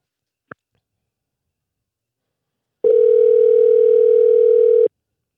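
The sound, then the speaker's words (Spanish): A brief click, then after a pause a steady telephone dial tone hums loud and unbroken for about two seconds before cutting off abruptly, as a phone call is being placed. No voices are heard. “Vamos a llamarlo. vamos a, llamar, añadirlo aquí rapidito.”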